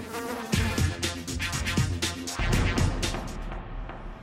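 A housefly buzzes steadily, its droning hum wavering in pitch and loudness for several seconds as it moves around, with no voices present.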